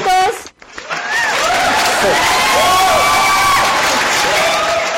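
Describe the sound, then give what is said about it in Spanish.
A brief voice gives way to a loud, sustained burst of cheering and applause from an audience outdoors in the historic centre of Chihuahua, with scattered shouts and whoops rising over steady clapping until the end. “en cabina no ponen aplausos. aquí están los ah, aplausos.”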